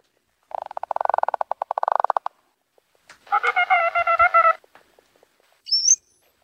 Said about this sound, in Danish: Og lad os lige høre øresvinet en gang til.